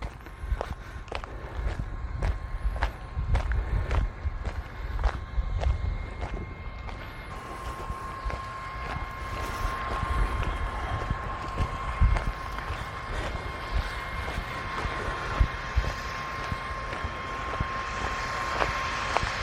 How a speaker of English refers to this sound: Ah, it's the sprinklers working on this giant field over here and it's the water pump and whatever helping to run all the sprinklers for this field. You probably hear just in the background now the sprinklers going.